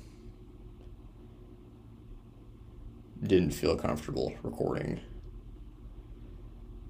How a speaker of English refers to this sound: outside, and I didn't want to turn off the AC.